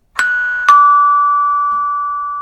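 A doorbell rings out in two chimes, a higher tone followed by a lower one, each struck sharply and then left ringing as a long, steady tone that slowly fades. No one speaks.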